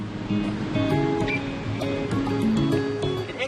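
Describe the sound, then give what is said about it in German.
Seawater washing steadily over coastal rocks as the tide comes back in at first light on a summer morning, on the rocky coast at the southern tip of Africa, soon to cover the rocks completely; a continuous broad rush with shifting gurgles and splashes, fairly loud and without any voices. “Die Flut kommt zurück.”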